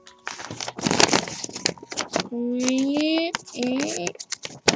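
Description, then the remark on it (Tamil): Waste paper crinkles and crackles as it is crumpled and handled to make a paper bird, in a quick run of irregular rustles for a couple of seconds, followed by brief humming vocal sounds with a few more scattered rustles. “நான் நிறைய பேப்பர்ஸை வச்சு பறவை செய்யலான்னு ஆசைப்பட்டேன் நான் இந்த பேப்பர் வேஸ்ட்”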